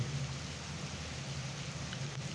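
Steady afternoon rain falls in an unbroken, even hiss with a low hum beneath it, moderately loud, with no voices.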